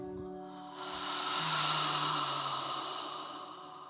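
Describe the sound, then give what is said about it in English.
A long, airy breath rises into a broad hiss and slowly fades, a deep inhale followed by an audible exhale in a guided breathing exercise, fairly soft, with no talking. “Let's do that one more time. Inhale, audible exhale.”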